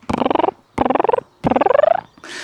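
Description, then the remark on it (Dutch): A mother cat, on coming in and seeing her kittens, calls them with three rolling, purr-like trilling calls in quick succession, each rising slightly in pitch, clear, followed by a brief soft rustle. “De moederpoes, eh, zodra zij binnenkomt en haar eh, kittens ziet, dan ze dit geluid.”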